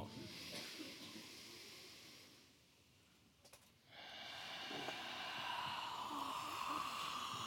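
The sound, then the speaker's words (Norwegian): A large audience in Trondheim takes a long, loud collective breath in, pauses briefly, then lets out an even longer, rushing exhale, a broad wash of airy hiss. “Pustepause, kan vi kalle det. Vi kunne ha tatt en kollektiv.”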